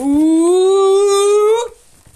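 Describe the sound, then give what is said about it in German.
A voice attempts a drum roll before announcing first place in a ranking of brawlers, with a single loud, sustained, buzzy tone that rises slowly in pitch for about a second and a half, then cuts off abruptly, leaving near silence. “So, das sollte ein Trommelwirbel sein.”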